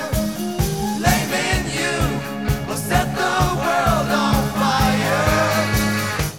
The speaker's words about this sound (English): We're back in normal 4 4 time here. The dynamics have gotten softer, and you can really hear that calliope up front now.